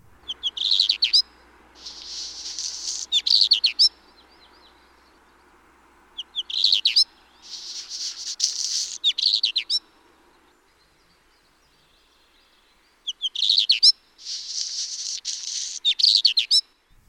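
A redstart of the phoenicuroides subspecies from the Altai, in its short ditty song variant, sings three short phrases, each a brisk rising note followed by a scratchy, crackling burst and another quick upturned note, clear with pauses between.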